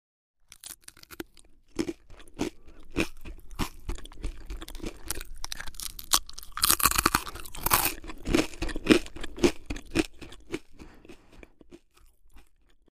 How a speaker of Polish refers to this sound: I rzeczywiście ten sardyński chleb jest cieniutki niczym kartka papieru zadrukowana pięciolinią, a podczas gryzienia wydaje dźwięk, który również kojarzy się z muzyką.